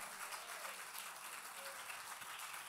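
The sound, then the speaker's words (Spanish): A church audience applauds, a dense, steady wash of many hands clapping together that holds evenly for a few seconds at a fairly soft level without building or fading. “Si ese aplauso es para mí está bueno, pero si es para Dios tiene artritis, déselo con fuerza, por favor.”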